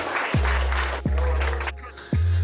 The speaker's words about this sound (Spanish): Un aplauso. Gracias, gracias, gracias, gracias.